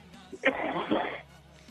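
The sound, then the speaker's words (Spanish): A single harsh, raspy throat-clearing cough from the secretary of tourism bursts out, lasting under a second, with a faint low hum underneath and no talking. “Quiero que le tomemos un poquito de tos. De ahogarlo.”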